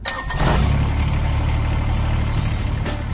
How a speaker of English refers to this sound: That's the sound of a Kubota BX Series, America's top selling subcompact tractor for over 11 years running. And it's easy to see why.